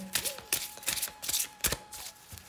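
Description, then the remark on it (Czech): Cards being shuffled for a card reading about a future partner, a run of quick papery riffles and flicks in irregular bursts, fairly quiet with a faint steady hum underneath and no one speaking. “A já už se dívám na vaši fotku, míchám u toho karty a my se spolu podíváme, kdy tak asi budete v oficiálním partnerském vztahu.”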